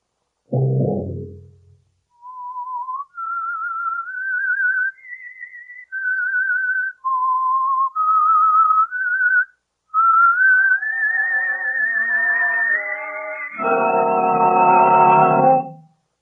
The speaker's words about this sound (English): And now, The Whistler. Wait a minute. Have you heard the whistler?